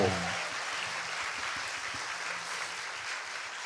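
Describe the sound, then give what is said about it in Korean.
A crowd claps steadily for a few seconds, a dense wash of many hands at even loudness with no one speaking over it. “와, 여러분 이 또라이 사업가에게 여 박수 한번 아. 부탁드리겠습니다.”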